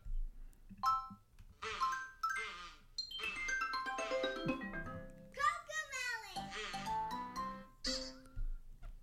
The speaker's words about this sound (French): T'as comme un genre de, show qui sonne comme euh, t'as comme un son qui sonne comme de la fairy dust qui tombe.